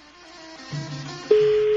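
A telephone ringing tone, the first ring of a phone call, cuts in abruptly after a quieter stretch of low hum, then holds as a loud, steady, single-pitched electronic tone. No one speaks.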